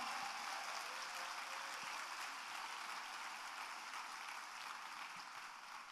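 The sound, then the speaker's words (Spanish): An audience applauds the Lord, a steady, dense wash of many hands clapping together without pause, holding an even loudness throughout before easing slightly at the very end. “Ahora dale el mejor aplauso que le hayas dado al Señor.”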